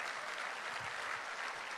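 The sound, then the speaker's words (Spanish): An audience applauds the Lord for a man's life, a dense wash of many hands clapping steadily at an even, sustained level with no voices standing out. “¿Cuándo le dan un aplauso al Señor por la vida de él?”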